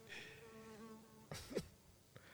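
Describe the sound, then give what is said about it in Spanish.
A steady insect buzz drones for over a second in the jungle, its harmonic whine wavering slightly, then a couple of brief rustling bursts and a faint click follow. “Es que sí es importante aclarar que estamos en medio de la nada y acaba a llegar No, no, no, los bichos en la selva está...”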